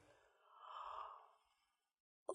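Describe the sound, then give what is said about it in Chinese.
A single drawn-out, breathy yawn voiced by a person acting out a story character's long yawn, swelling and fading over about a second with no words, followed by a short sharp click at the very end. “慈慈打了个长长的哈欠。”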